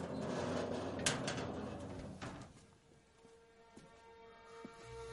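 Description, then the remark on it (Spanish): A storeroom door slides and thuds shut amid rustling noise, with a couple of sharp knocks early on, then the sound settles into a low steady hum with faint ticks. “Cierra la puerta del almacén.”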